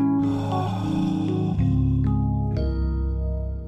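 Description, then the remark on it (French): A short, steady intro theme jingle with sustained chords shifting a couple of times, layered with loud breathing and snort-like inhales and exhales, and no talking. “Euh, et c'est peut-être l'occasion de, lancer un petit générique qu'on adore.”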